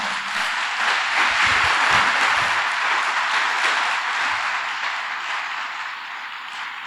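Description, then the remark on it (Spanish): A crowd applauds steadily for a young woman and a small boy, a dense wash of many hands clapping at an even loudness that tapers slightly toward the end, with no talking over it. “Quiero pedir un fuerte aplauso para ellos, por favor.”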